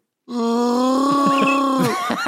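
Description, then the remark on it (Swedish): A person imitates the roar of Chewbacca, the Star Wars Wookiee: one long, loud groaning howl held for about a second and a half, wavering slightly before it breaks off into a few rough gasps. “jag, jag kan, det här är Chewbacca.”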